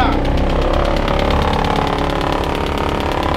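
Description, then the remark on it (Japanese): A large rotating screen sorting machine at a sawmill, used for cedar logs about 10–15 cm across and 4 m long, roars loudly and steadily. Its four blades spin at high speed, giving a fast, rhythmic whirring pulse that fills the whole stretch without letting up. “ラジオは音が命なのですごいですかすごい音なんでまずここから見てここに立ってて大丈夫ですそこに立ってて大丈夫ですでこっちです、はいはいった回転板なんかすごい音が”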